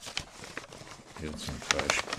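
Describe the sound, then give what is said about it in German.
Crinkling and rustling of soft paper as stones, carefully wrapped in it and taken from an old cigar box, are unwrapped at a home in Landshut, with uneven bursts of crackle that grow louder toward the end, and a voice murmuring faintly underneath. “Vorsichtig holt er aus einer alten Zigarrenkiste sorgfältig in weiches Papier gehüllte Steine.”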